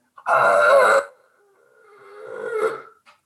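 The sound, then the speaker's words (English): A person imitates a monstrous demon scream into a microphone: a loud, harsh, rasping roar for about a second, then a rising, strained guttural cry that swells and cuts off, alone. “it was a blood curdling, monstrous Eh, like demon scream”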